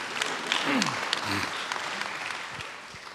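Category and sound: crowd, audience applause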